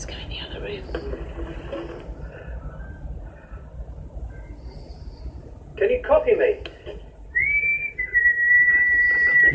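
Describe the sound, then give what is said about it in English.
A person whistles a clear, steady tone that slides up and then holds for a couple of seconds, standing out near the end over a busy background of low rumble and murmuring voices. “Begin with a whistle.”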